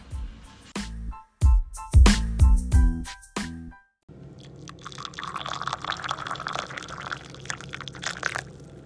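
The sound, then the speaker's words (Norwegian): A few bright, ringing bell chimes sound first, then boiled water is poured in a steady, bubbling, splashing stream that continues for several seconds, with no talking. “Der koker vannet.”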